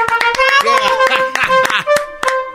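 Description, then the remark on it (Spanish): Scattered, uneven hand claps ring out as brief sharp smacks, mixed with sustained voices calling out over them, like a small group applauding and cheering. “A aplausos.”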